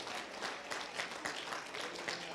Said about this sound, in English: So give God a hand clap of praise and then give yourself.